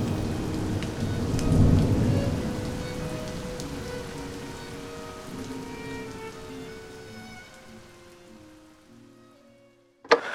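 Steady rain hisses and patters throughout, with a deep rumble of thunder swelling early on before the downpour gradually fades toward the end. No one speaks.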